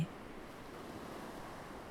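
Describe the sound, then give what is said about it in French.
Soft, steady wash of ocean water gently lapping, a continuous low hiss with no distinct breaks, quiet and even throughout, with no voices. “Entendez le clapotis des vagues vous bercer.”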